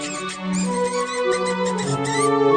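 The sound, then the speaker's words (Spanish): A loud, shrill mouse squeak that wavers in pitch and runs continuously for a couple of seconds, prominent with no other sounds around it. “De pronto, el ratón regresó y chilló tan fuerte que asustó al elefante.”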